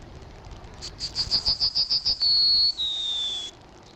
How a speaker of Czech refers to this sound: No to byl ten strnat. Ano. Tak, tak toto je právě jeden z těch typických to je jeden z těch typických dialektů, z typických nářečí strada obecného.